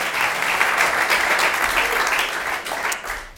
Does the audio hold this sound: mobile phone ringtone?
no